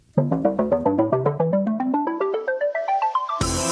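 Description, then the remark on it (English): A short electronic jingle: a quick run of bright synth notes climbing steadily in pitch, ending in a loud, hissy crash-like burst. No one speaks. “Right then, so it's jingle time, jingle bells.”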